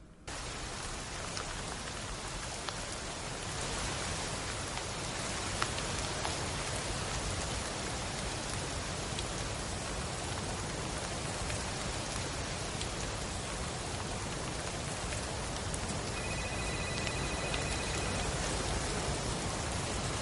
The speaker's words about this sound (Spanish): Pues la verdad es que eh, la película, eh, básicamente hemos oído el tráiler, no hay opción de tener eh, tráiler en castellano, pero simplemente este primer tráiler que nos suena simplemente lluvia, muchos móviles que suenan a lo largo del metraje